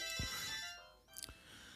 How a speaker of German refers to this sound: Oh, jetzt geht hier gerade das Telefon. Ich bin gleich wieder da.